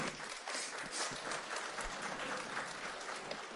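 A group of children applauds steadily, a dense patter of many small hands clapping at once, with no voices standing out.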